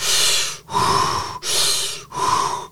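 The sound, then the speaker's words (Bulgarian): Heavy, forceful breathing imitating the breathing done with feet dipped in ice-cold water: four loud, rough breaths in a quick, steady in-and-out rhythm, each lasting under a second, with no talking. “казвам сега, като дам знак, топите си краката във водата и почвате да дишате силно.”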